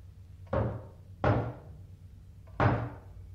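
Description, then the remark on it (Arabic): Three heavy knocks on a wooden door, unevenly spaced with a slightly longer pause before the last, each a booming thud that rings briefly over a quiet background hum. “دي خبطة الشطر عالي”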